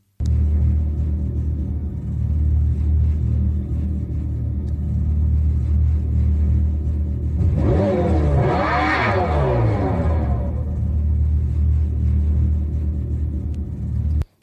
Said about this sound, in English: to me, I think it sounds like, uh, yeah, I think it sounds like the new Dodge Charger, the Daytona, the electric vehicle, the you know that has the fake exhaust.